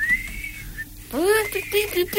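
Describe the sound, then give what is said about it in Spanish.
A man whistles an imitation of a knife-sharpener's tune, clear: a held high note, then quick sliding runs that sweep up and down the scale in short bursts. “Mira, era, porque él mismo se puso a silbarlo y era y era como la, la, música del afilador, ¿viste?”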